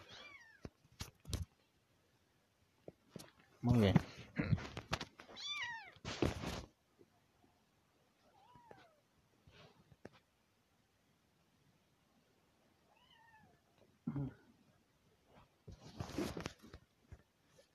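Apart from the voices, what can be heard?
cat meowing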